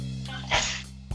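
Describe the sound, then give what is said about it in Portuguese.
A single sharp sneeze bursts out, brief and forceful, over a steady low background hum with no talking. “Saúde!”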